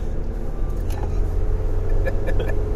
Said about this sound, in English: All right, we're back in the car and talking, and I guess, I guess we're we're we're doing our whole Tron show from the car.